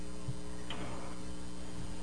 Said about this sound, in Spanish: tu micrófono, por favor, para que no haga interferencia.